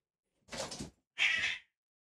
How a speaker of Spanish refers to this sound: Y los gatos están peleando. Por alguna razón.